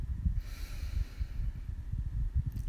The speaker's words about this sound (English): And we're going to begin by just taking a few deep breaths in, allowing our eyes to low, lower or close. Just breathe in deeply in and out through your mouth.